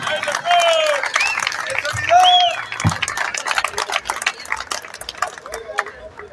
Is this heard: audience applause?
yes